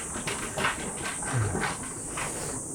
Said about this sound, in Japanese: 今ちょっと前で台車をしてる人がいらっしゃるんで、ちょっと音がガラガラっと入っちゃうと思いますが